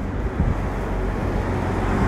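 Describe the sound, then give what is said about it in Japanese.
A steady low rumble of road noise, like a car going by, fills the short stretch with no clear rise or fade and no voices. “なんか車が通ったので聞こえてます”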